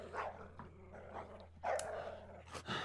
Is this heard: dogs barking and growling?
yes